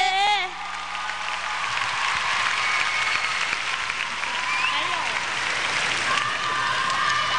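A large audience claps steadily to welcome the winner of a special contribution award, a dense, even roar of applause that holds at full strength throughout, with a brief tonal sound at the very start.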